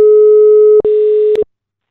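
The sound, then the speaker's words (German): A steady mid-pitched telephone busy tone from a phone call that fails to get through sounds loudly for about a second and a half, briefly interrupted by a click partway through, then cuts off abruptly into silence. “Wir kommen auf jeden Fall nicht bei dir durch und ich glaube, dein Empfang ist eventuell auch weg.”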